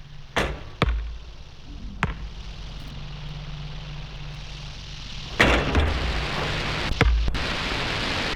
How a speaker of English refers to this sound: Kid out the back with his basketball.